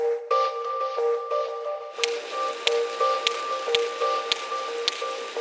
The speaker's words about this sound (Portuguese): Este é o som dos cachalotes. E estes sons são transmitidos pelos investigadores para orientarem o robô.